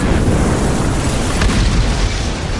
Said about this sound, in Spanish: Los informes dicen que el incendio se inició en la cubierta. Dentro de la sala de motores, había una tubería con una pérdida. Una chispa del generador prendió fuego unos tanques de gasolina destapados y en solo segundos